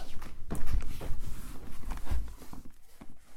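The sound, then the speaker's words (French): Soft, muffled footsteps pad across a rug, a steady series of dull thuds with light scuffing between steps and no voices. “Le tapis.”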